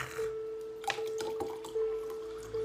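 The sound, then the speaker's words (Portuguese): Water trickles into a glass as it is poured for prayer, a thin steady ringing tone with a few soft splashes and drips scattered through it. Quiet and continuous, with no voices. “Separe o seu copo com água, deixa eu aqui colocar o meu também para orar.”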